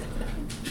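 dog panting

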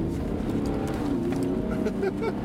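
car driving

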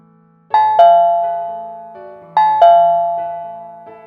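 doorbell ringing

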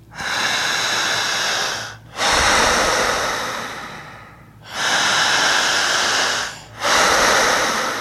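deep

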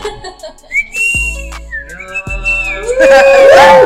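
person attempting to whistle

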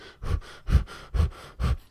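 rapid panting breaths

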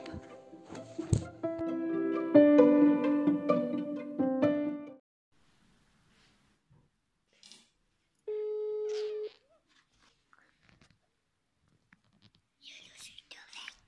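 telephone ringing tone

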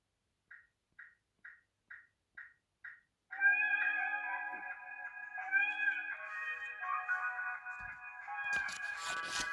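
cat meowing

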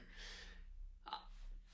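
cough

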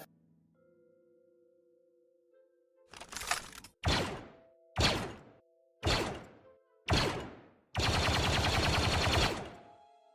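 burst of gunfire

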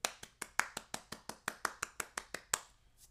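one person clapping hands

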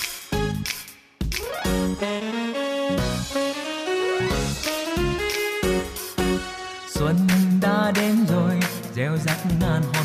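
song intro music playing

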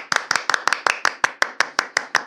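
clapping applause

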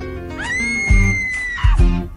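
terrifying scream

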